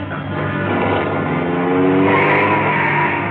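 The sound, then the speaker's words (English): A car engine roars at high revs, speeding during a chase while tires squeal and skid through a sharp right turn at a corner; the loud, sustained whine rises toward the end. “Turn right at the next corner.”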